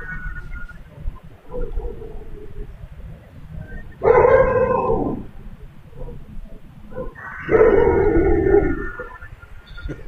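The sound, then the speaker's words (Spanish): Dogs howling and yelping, with two long, loud wailing howls rising over a noisy background of fainter barks and yips. “O sea, los perros.”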